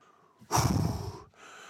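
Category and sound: human body sound, heavy breathing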